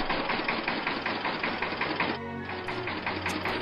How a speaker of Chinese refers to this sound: 拖拉机真的开走了。原来司机找来了修理师，已经把拖拉机修好了。